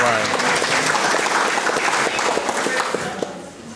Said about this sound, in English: Actually, that deserves a round of applause